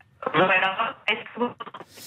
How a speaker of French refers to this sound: la, liaison est vraiment très mauvaise là. On, ne vous entend pas du tout.